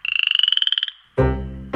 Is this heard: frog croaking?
yes